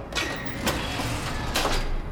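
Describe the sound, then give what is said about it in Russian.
A door is closed by a silent man carrying a rifle, with a continuous mechanical rumble and a few short clattering knocks spread across two seconds, moderately loud, with no voices. “Оставшийся провожал его взглядом куда дольше, чем мог видеть, а затем молчаливый человек с винтовкой закрыл дверь.”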